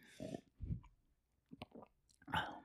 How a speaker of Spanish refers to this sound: el que se escucha el traguito.